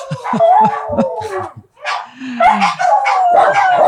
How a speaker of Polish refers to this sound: No to taki churalny śpiew. To jest tak przypomnienie o tym, że są były wilkami. Więc tak muszą sobie troszkę powyć, mają swoje godziny wycia. I to po prostu trzeba przetrzymać.